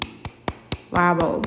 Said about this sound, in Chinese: 我终于，我终于录到了三百六十五集啦，为自己掌声鼓励